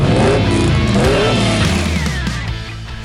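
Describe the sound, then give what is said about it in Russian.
A car engine revs hard and accelerates, its pitch climbing and shifting through gears, loud for about three seconds with no voices, then easing off slightly at the end. “Все, поехали, дави на газ. Наша рубрика автомобильная традиционно в конце часа.”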